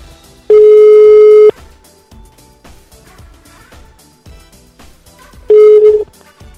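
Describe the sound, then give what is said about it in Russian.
A telephone ringback tone while calling a restaurant: a steady, fairly loud one-second beep, a pause of about four seconds, then a second beep cut off by the end, over faint background noise and clicks. “Давайте третье место позвоним.”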